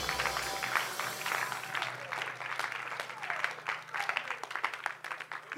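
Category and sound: crowd, audience applauding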